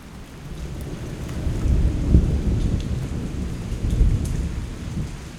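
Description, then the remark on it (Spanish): Heavy rain pours steadily while deep, rolling thunder rumbles, swelling in a couple of loud surges, during an electrical storm at a lagoon lookout point. No voices. “Llegamos al mirador y justo en ese momento empieza una tormenta eléctrica.”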